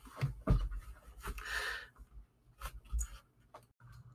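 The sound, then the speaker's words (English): A male cat scratches at a door in quick, irregular bursts of rasping scrapes, fairly loud, mixed with a few dull thumps against the wood. “Cat was scratching the door.”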